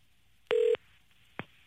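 A telephone line tone from an outgoing call placed to a listener during a live broadcast: one short, steady electronic beep lasting about a quarter second, followed by a faint click, with no voices.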